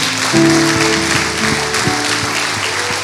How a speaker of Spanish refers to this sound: Démosle un aplauso fuerte a nuestro Señor.